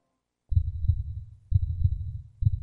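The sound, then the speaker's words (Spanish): A deep, booming heartbeat sound effect in a Capital Radio promo thumps in a slow, steady rhythm, three beats about a second apart, loud, with a faint high tone riding along, with no voices. “Escucha el latido de los mercados en Capital Radio.”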